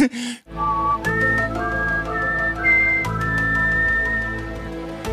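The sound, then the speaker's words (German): A person whistles the X-Files (Akte X) TV theme melody, an eerie, wavering tune in long sustained high notes that slide between pitches, over a steady low hum with no talking. “Ich wollte gerade sagen, mach mal, die, mach mal kurz die Akte X-Melodie bitte.”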